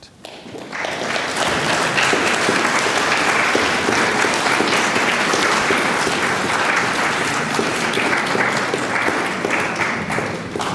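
Audience applause after a lecture: a dense, steady wash of many hands clapping that starts almost at once and keeps an even loudness for about ten seconds, with no talking.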